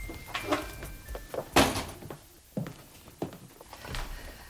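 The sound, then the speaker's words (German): The ajar front door of a bungalow is carefully pushed open with a creak and a few soft thuds and knocks, followed by quiet shuffling movement and scattered light bumps. “Er wollte trotzdem klingeln, als er bemerkte, dass die Tür nur angelehnt war. Vorsichtig stieß er sie auf.”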